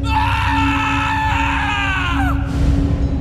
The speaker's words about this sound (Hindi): ये देखते ही उसने चौंकते हुए मुड़कर पीछे देखा तो डर से उस लड़के की चीख निकल गई